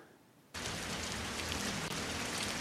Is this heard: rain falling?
yes